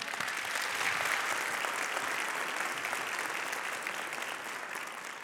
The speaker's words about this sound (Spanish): Le damos un, un aplauso.